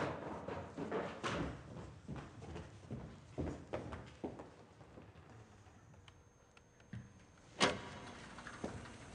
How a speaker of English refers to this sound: Everything all right? Are we okay? Did that tremor throw off the system?